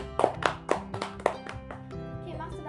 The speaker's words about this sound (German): Ähm, gut, dann ein Applaus für Gryffindor.